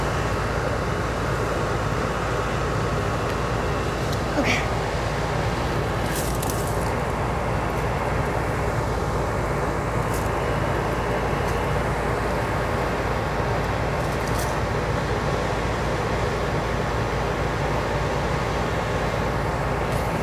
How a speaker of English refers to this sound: The exhaust is very loud.